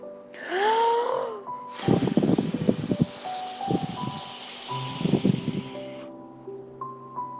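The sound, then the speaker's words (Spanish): A long, forceful blowing whoosh of the wolf blowing at the little pigs' house in a told story, breathy and hissing, sustained for about four seconds and then cut off, over soft background music with held tones and a brief rising note before it. “Entonces el lobo sopló.”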